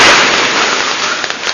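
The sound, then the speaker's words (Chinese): Fresh tea leaves crackle and sizzle in a hot wok heated to under 100 degrees, a dense steady hiss of tiny pops with a few sharper snaps near the end, with no talking. “因为我们是呃有一七十度、一百度以下，所以鲜叶有温度嘛，你一下去一下去的话，它哒哒哒响，就不是特别响”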